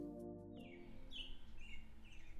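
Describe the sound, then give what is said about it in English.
Songbirds chirp in quick, repeated bright calls, moderately loud, heard through an open bedroom window and layered over a steady low droning hum that runs throughout. “here is Pastor … with the accompaniment of some songbirds”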